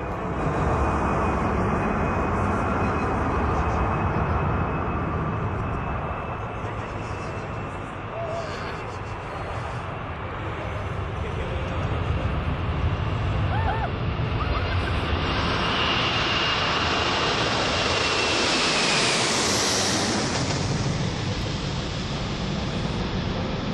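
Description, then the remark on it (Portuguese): A loud, steady airplane engine drone fills the whole stretch, swelling as the plane passes overhead with a rising then falling whine toward the end. “zumbido era de um avião.”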